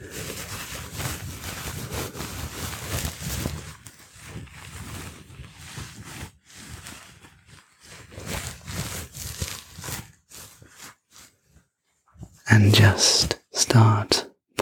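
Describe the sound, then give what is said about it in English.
Soft swishing of a rag rubbing and polishing a surface in steady, uneven strokes, briefly pausing before a couple of louder, brisk scrubbing bursts at the end. “polishing you up to a nice”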